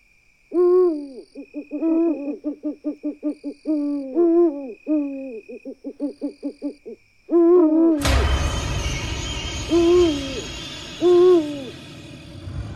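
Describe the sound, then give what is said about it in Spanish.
An owl hoots repeatedly in quick, rhythmic bursts of tremulous calls, clear; partway through, a steady noisy background rushes in beneath a few more spaced hoots. “Amigos y amigas, el canto del tecolote tiene la capacidad de ponerle los pelos de punta a muchas personas.”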